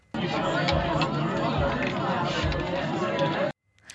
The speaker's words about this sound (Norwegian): Det er den lille lyden du hører ja. i front av ja. Eh, dette folkemassen i bakgrunnen.